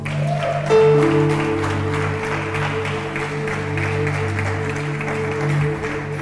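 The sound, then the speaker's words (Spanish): An audience at the Iglesia Amante de su Presencia applauds Jesus steadily for about six seconds, a dense, even patter of clapping over sustained low musical tones that hold throughout. “otro aplauso a Jesús.”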